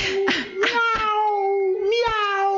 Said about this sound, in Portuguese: teve um, um miau